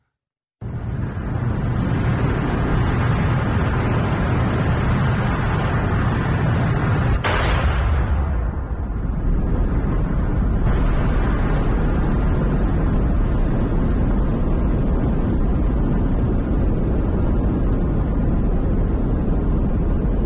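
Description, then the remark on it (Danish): A reconstructed recording of an atomic bomb explosion: a deep, loud roaring rumble builds, then a sharp blast cracks through midway and gives way to a long, sustained thunderous rumble with no voices. “det er en rekonstruktion af en optagelse af en eksplosion fra en atombombe.”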